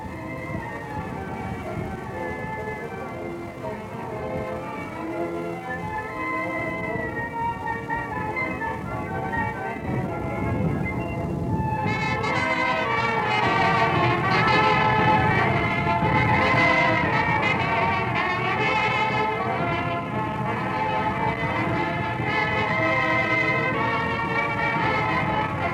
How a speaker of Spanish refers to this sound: resuenan las notas alegres de las mañanitas para San Simón